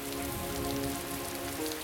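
Steady rain patters on a hard surface in a dense, continuous hiss, moderately loud, with a faint low hum running underneath and no voices.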